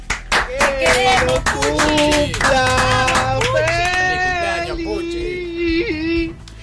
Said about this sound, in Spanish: Pido este aplauso para él.